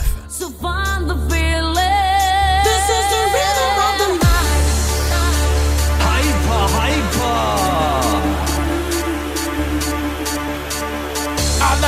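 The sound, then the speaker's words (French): A loud, nonstop montage of 1990s dance tracks broadcast live on radio, with a pounding steady beat and heavy bass, cutting abruptly from one song into the next partway through, with no one talking. “Vous écoutez présentement un montage des années 90 en direct du 96-9.”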